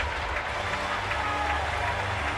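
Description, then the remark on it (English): A large arena crowd at a basketball game roars steadily with scattered applause as it comes to its feet, a dense continuous wash of noise without pauses. “Crowd comes to their feet as they should.”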